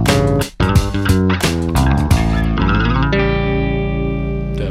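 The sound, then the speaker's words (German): A short, loud party jingle: punchy percussive hits and dense, effects-drenched synth chords in the first half, settling into a sustained, distorted chord that rings out to the end. “Hoch die Hände, Wochenende. Musik”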